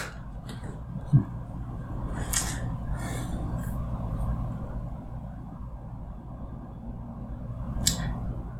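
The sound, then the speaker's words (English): Footsteps on a wooden floor: a handful of irregular thuds and creaks, fairly quiet, over a steady low rumble, with no one speaking. “It sounds like they're walking on wood.”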